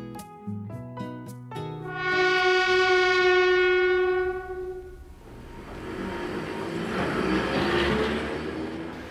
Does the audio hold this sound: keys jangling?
no